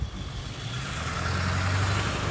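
A car passes by outside, its engine rumbling steadily, its low hum and road noise swelling slightly. No one speaks.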